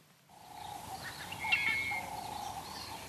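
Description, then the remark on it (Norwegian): Outdoor ambience early in the morning in Hwange National Park, Zimbabwe, with birds calling, a steady high whistling tone running through and a brighter trill rising briefly in the middle, over a soft background hush; no one speaks. “Fuglene kvitrer, antilopene gresser, og en flokk med elefanter krysser en vei tidlig en morgen i Hwange nasjonalpark i Zimbabwe.”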